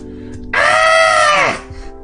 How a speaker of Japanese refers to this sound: 実際に後ろ向いて叫んだ反響だったって、もうよくわかってんじゃん。